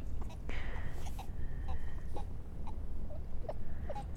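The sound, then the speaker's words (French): Sea lions bark and call in a series of short, wailing cries and yelps, some drawn out and whiny, rising over a steady low rumble of background noise. “drôle les otaries parce qu'on dirait.”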